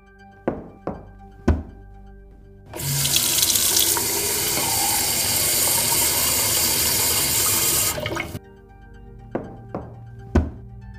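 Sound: water being poured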